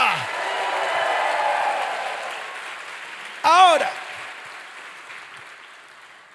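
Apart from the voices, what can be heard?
audience applause and shouts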